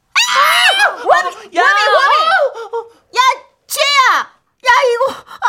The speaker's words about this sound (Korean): 선생님이 저를 보고 놀라자 떠돌던 친구들이 일순간 조용해지더니 저를 쳐다봤어요. 그리고 소리를 지르기 시작했습니다.